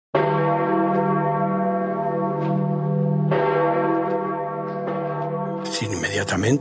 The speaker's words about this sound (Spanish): Y entonces, cuando se anuncia, ¿qué pasa? Suenan las campanas en todo el orbe católico.